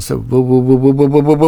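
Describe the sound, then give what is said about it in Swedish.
A voice hums a steady sustained tone that wobbles in a fast, regular pulse, imitating the swirling sound a studio effects pedal made when pressed down, fairly loud after a brief spoken word. “Jo, vilket fall som helst så hade, hade jag den där eh, pedalen. Om man trampade ner den va”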